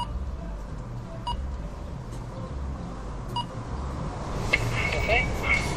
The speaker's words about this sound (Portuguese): Vamos tocar à campainha.